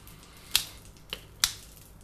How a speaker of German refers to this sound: Ah, hörst du da hinten die Butter? Die britzelt schon etwas. Ah, hört man vielleicht ein bisschen am Mikro? So, machen wir nochmal einen Tropfen Wasser rein. Na, noch ein bisschen.